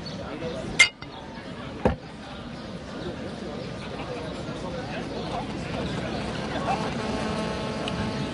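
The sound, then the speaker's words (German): Two sharp glass clinks ring out, a second apart, as in a toast, over a steady background of low room noise and murmuring voices. “Nee, komm, jetzt stoßen wir erstmal richtig ja, an.”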